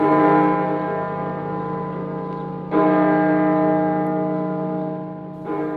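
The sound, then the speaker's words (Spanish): A church bell at a mission chapel dedicated to the Virgin of Fátima, whose two flat towers each hold a single bell, tolls slowly, about three strikes a few seconds apart, each clang blooming into a long, rich hum that overlaps the next. Loud, with no talking. “Su sencilla y bella fachada, lisa en contraste con su cuerpo de piedra, pintada de blanco y beige, con sus dos torres planas de un cuerpo que alojan a sendas campanas solitarias.”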